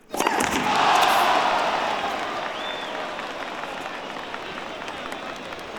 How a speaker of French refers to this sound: Ça suffit, J'en peux plus de vous entendre crier, vous dérangez tout le monde.